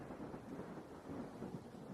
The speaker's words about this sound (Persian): عجب باز بارون شروع شد بیاید زیر شیربونی وایسیم